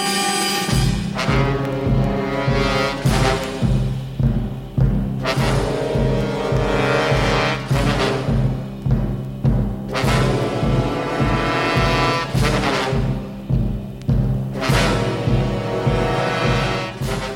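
A loud, dramatic instrumental song plays on its own, with heavy sustained brass-like tones and strong percussive hits landing at a steady, driving pace, with no voices.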